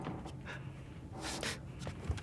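Low, heavy breathing of a man at night aboard a boat, a few slow breathy exhalations with a rough, airy texture, the strongest one in the middle, all fairly quiet against a faint background hiss.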